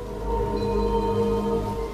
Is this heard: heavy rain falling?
yes